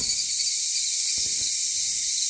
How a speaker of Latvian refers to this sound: šie ir eksotiski kukaiņi.